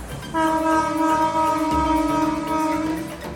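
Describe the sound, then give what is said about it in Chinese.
A train horn sounds one loud, steady blast lasting close to three seconds, a rich chord-like tone over a low rumble, with no voices. “像是火车要警告人们，哎哎，这里有危险，这里有危险，就会发出短的、急促的鸣笛好几声。”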